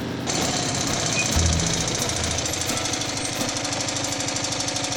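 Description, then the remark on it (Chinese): A small truck engine sputters and coughs in a fast, rattling stream of pulses, starting after a brief pause and continuing loudly and steadily, with no voices. “但是小货车开始咳嗽了起来。”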